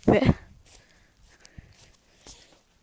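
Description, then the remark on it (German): A loud scuffing thump opens, followed by a few faint, scattered footfalls of someone running up steps against a quiet background, uneven rather than a steady running rhythm. “Ich kriege gerade auf auf so Stufen und das ist ganz schön dreckig.”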